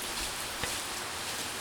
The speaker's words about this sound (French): L'orage est trop fort.